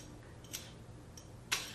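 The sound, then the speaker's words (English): A match being struck: three short, dry scratches, the first two soft and the last a sharper, louder rasp with a brief hiss trailing after it. No one speaks. “And I'm going to go ahead and light. Oops, broke my match. Let's try that again.”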